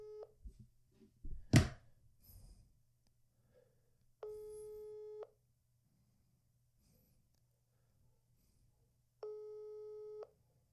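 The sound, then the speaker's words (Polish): An unanswered phone call gives a steady, mid-pitched electronic tone in two long beeps about a second each, spaced several seconds apart, after a brief rustle and a sharp click over faint hum. “Dzwonimy, dzwonimy.”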